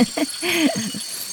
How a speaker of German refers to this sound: Da ist ordentlich was los, ja. Und auch die, die Frösche, hörst du die? Ja, ja. Da hinten?